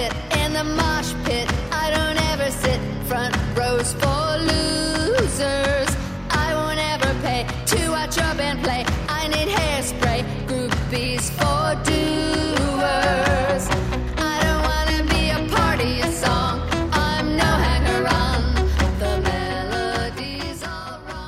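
A full-band pop song from a debut solo album plays steadily and loudly throughout, with bright layered instruments over a firm bass line and no talking over it.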